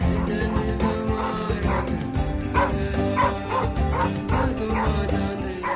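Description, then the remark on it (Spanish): A dog, the oldest female of the household's dogs, barks repeatedly in short bursts, mixed with high whimpers and yips, fairly loud throughout, with no one speaking. “Me da una alegría cuando llego a casa porque Bu, uno de mis perros”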